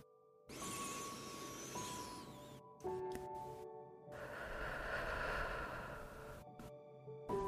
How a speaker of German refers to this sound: Dann atmen wir nochmal dreimal tief durch die Nase ein und lang durch den Mund aus.